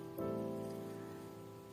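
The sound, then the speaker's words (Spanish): Light, gentle rain falls steadily over a town square at a soft, even level, with a faint constant hum running underneath and no voices present. “Está cayendo ahora mismo una lluvia fina, mansa, sobre la plaza.”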